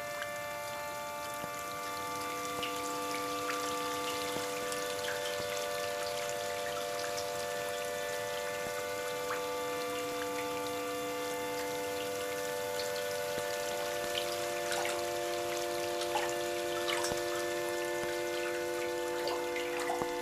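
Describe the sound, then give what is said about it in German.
Water drips at an irregular pace, scattered small plinks over a steady, humming tonal drone that continues throughout. No one speaks. “Der Wassertropf, tropft, tropft, tropft, tropft, tropft, tropft, tropft. tropft.”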